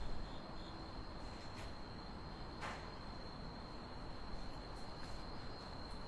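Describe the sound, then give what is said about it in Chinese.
Cicadas chirr in a steady, high-pitched electric buzz that holds unbroken throughout, over a low, rumbling background hiss, with a brief soft click partway through and no voices. Heard in autumn at a parking area downstairs full of electric scooters. “这是一段蝉鸣”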